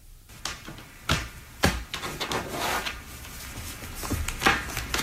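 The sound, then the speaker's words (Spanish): A very old tarot deck being laid out on a table: several sharp, dry slaps at irregular intervals with soft papery rustling between them, with no one speaking. “Ahí está echando las cartas.”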